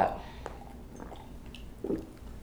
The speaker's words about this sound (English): Sorry, I'm just gonna take a sip of water here.